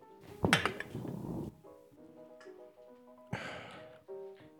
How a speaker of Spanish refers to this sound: Esa salud suena medio raro, ¿no? Como, como que eso de chocar botes, no, no, no, como que no suenan los pinches botes, güey. No sonaron mucho los botes, no servimos en vaso al día de hoy.